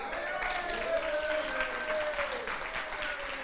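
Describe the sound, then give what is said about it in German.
Steady audience applause, a dense wash of clapping that holds at an even level throughout, with a faint tonal hum or voice running beneath it. “Da gab es äh, Zustimmung aus dem, aus dem Publikum.”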